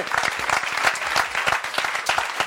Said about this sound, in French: Et on peut aussi, euh, s'il vous plaît, un applaudissement pour euh, toute l'équipe technique.